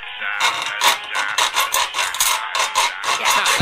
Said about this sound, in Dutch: Ja, ik zaag hem gewoon door. Voorzichtig